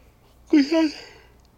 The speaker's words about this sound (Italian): Ah, bello sbadiglio, grande.